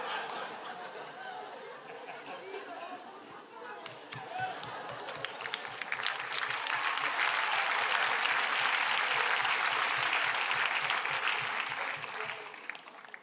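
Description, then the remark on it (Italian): Audience applause, a dense wash of many hands clapping that swells and grows louder midway, with scattered laughter and chatter mixed into the crowd noise. “Ah, era un applauso, eh, ho capito.”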